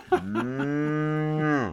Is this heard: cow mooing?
yes